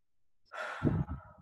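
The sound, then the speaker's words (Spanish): A single deep breath taken as a calming breathing exercise: a brief airy inhale followed by a longer, breathy exhale with a soft sigh-like quality, fairly quiet, with no talking. “si en estos momentos te sientes así como afectado, te invito a que hagamos una respiración”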